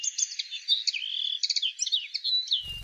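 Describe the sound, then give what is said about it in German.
A common linnet sings a rapid, twittering song of varied chirps and trills, continuous, with no voices over it, ending abruptly with a brief low thump. “der Bluthänfling,”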